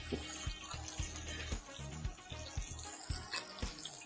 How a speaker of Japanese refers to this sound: ね、多分今、そのマイク越しに多分、牛肉の焼いてる音がジュージューと聞こえてるんじゃないかと。